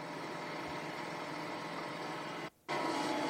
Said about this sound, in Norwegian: Eh, nå så sitter jeg i traktoren her.